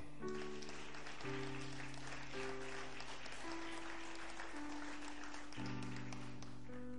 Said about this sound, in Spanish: El soberbio que no se humilla es cortado del medio del pueblo. Aplaude ahora.